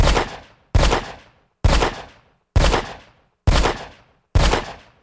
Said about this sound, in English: So then Charlie says, I'm not sorry. And then fires the gun until it's empty